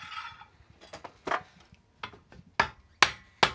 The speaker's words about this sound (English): there are more than 350 steps that go into making a cowboy boot. Hammering is just one.